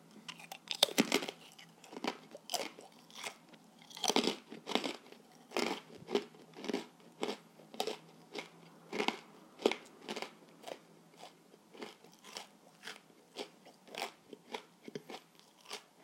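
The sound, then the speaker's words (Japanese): Crisp crunching as a senbei rice cracker is chewed, with sharp bites at first giving way to a steady rhythm of crackly chews over about sixteen seconds, no talking. “俺いつぶりにせんべい食べただろうリアルに”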